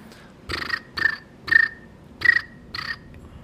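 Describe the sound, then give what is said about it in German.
A person imitates cricket chirping with their lips, making five short, shrill chirps at an uneven rhythm, each with a thin whistling tone. Clear, with no talking. “Du, du kannst so ein cooles Geräusch, du kannst, glaube ich, Grillen nachmachen.”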